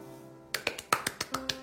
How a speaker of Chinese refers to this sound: 给自己鼓掌。